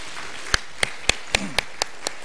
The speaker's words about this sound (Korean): 그래서 그런지 찬양 그 톤과 분위기와 그 찬양의 색이 작년보다 몇 값을 좋아지신 것 같습니다. 우리 박수로 우리 한번 같이 한번 격려하도록 하겠습니다.